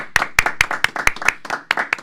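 Steady hand clapping, about nine or ten sharp, bright claps in a loose rhythm roughly four per second, fairly loud with no voices over them.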